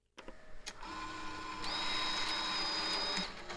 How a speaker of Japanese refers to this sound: ラジオネーム鍋鬼のえっ、ー、と両替両替してコインの音